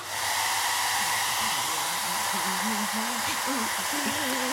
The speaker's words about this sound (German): Also Leute, ich habe noch nie einer Hyäne beim Föhnen zugeschaut.